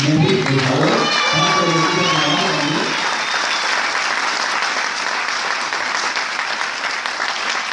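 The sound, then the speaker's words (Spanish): An audience in Costa Rica applauds a speaker who holds a presidential diamond rank: steady applause fills the whole stretch, a dense, even wash of clapping; during the first few seconds a voice speaks over it before the clapping continues on its own. “Y se regresa a Costa Rica, y acá en Costa Rica, nuevamente con su esposa, levanta un nuevo equipo y ya tiene un diamante presidencial que pidió un el aplauso,”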